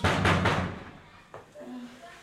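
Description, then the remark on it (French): A door is opened to let a doctor in, with a couple of rough, rattling clunks, followed by a single sharp knock-like thud and then faint murmured voices in the background. “Ok, j'ouvre la porte, mais s'il fait un geste, je le flingue.”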